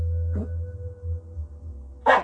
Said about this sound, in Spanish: ese fue mi perro que ladró